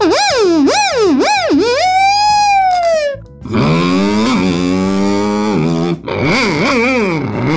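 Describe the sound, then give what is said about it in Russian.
A beatboxer vocally imitates a police car siren, starting with quick rising-and-falling whoops, then a long wail and a buzzy, gritty held tone, ending in more fast warbles. It is loud, with no speech. “Или, например, сирена полицейской машины.”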